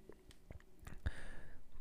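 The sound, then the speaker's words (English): A quiet sip of Oktoberfest Märzen lager beer: a few soft lip and mouth clicks, then a short slurping draw of liquid followed by a swallow, with no one speaking. “So let me give it one last sip, and then I'll get right to the score.”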